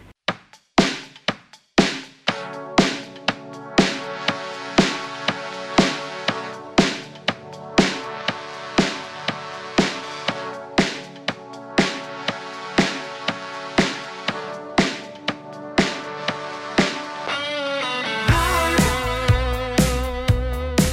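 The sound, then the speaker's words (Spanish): A rock band's new single plays with steady, evenly spaced drum hits under sustained guitar chords, no voice, before the sound abruptly thins and turns brighter near the end. “Hay nuevo single de la banda, está disponible en todas las plataformas digitales y suena así.”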